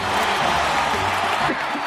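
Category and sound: crowd, crowd ovation and cheering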